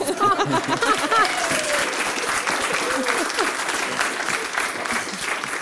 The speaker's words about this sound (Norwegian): Hun tar applaus